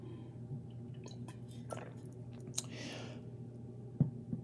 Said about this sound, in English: All right, well, I am, quick drink of water, a hydro homie.